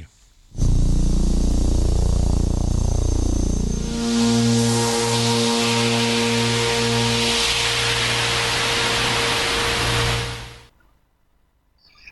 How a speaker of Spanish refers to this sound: Ahora, aquí les traigo, por ejemplo, cómo se escuchan las estrellas, la interferencia, el radio de las estrellas. Aquí lo tenemos.